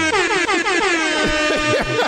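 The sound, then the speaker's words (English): A loud, blaring air horn sounds continuously for about two seconds, its harsh, brassy tone wavering slightly in pitch, with no talking over it. “love that, I love that gets the air horn.”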